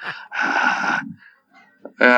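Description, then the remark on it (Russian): A voice imitates heavy, raspy breathing: a few loud, breathy huffs and wheezy exhales with short pauses between them, ending on a sharp voiced gasp. “И такое дыхание, знаешь.”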